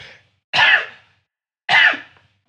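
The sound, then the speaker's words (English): Two loud, explosive sneezes about a second apart, each a sharp burst of breathy noise that fades quickly, with a faint breath before the first and nothing else in between. “There's the sneeze.”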